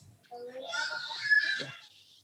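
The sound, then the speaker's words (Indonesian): A baby lets out a high-pitched, squealing vocalization lasting about two seconds, soft, with no clear talking over it. “Yang bayi juga ada suaranya.”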